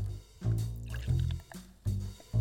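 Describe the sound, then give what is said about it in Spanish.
Stout beer glugs from a bottle into a glass in several bursts, low gurgling pulses with short pauses between, each surge loud and bubbly with faint fizzing above, leaving two fingers of foam. “Así que, con permiso, señores, procederé a servir.”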